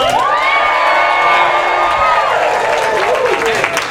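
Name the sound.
audience cheering and shouting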